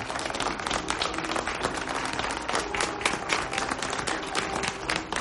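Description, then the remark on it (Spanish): A crowd applauds steadily for about five seconds, dense overlapping hand claps forming a continuous, fairly loud patter with no voices standing out. The audience is applauding a couple of sweethearts who took part in an on-stage experiment, with an assistant encouraging the clapping. “Su ayudante anima a aplaudir.”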